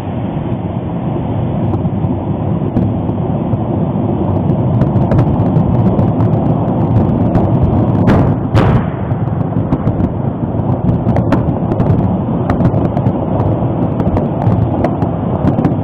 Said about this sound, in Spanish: Esto fue lo que ocurrió justo al momento que el volcán Popocatépetl presentó una gran explosión a las 5 de la madrugada con 12 minutos del día 15 de mayo del 2023.